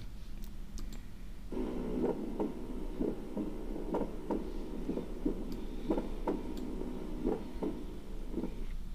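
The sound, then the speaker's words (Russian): A recorded heartbeat with a split first heart sound, attributed to mitral valve closure followed by an aortic ejection tone: steady, muffled thumps about once per second, each beat slightly doubled, with a slight arrhythmia, over a constant low background hum; no one speaks. “Итак, расщепление первого сердечного тона.”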